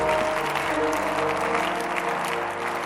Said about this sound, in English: If you can clap, that is your blessing.